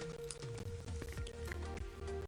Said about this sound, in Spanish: Entonces, ay, dejen tomar agua, Porque aparte estoy bien enferma ahorita ando en suero.